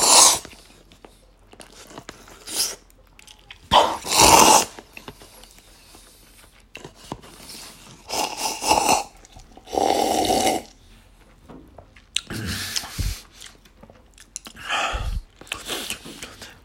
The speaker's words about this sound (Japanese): 俺もう今食った、聞いたろ。食ったの聞こえたろ。